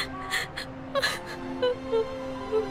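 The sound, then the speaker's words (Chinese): A little girl crying on the eighth-floor balcony of a building in a big city, with high, wavering whimpers broken by sharp, gasping breaths that recur every half second or so, moderately loud and with no talking. “从八楼的阳台上传来一个小女孩的哭声。”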